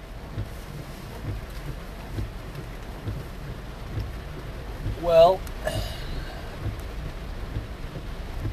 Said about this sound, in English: How's everybody doing this uh, rainy September? Sorry about the uh, noise pollution in the back. Doing my podcast out of my vehicle today while I'm uh, working.